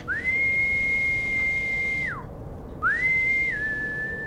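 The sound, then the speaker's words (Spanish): A person gives two long, clear whistles to call a dog, each sliding up to a steady held note before dropping off; the first is longer, with only faint background hiss and no talking. “Preocupado, comienza a llamarlo con el silbido que acostumbraba.”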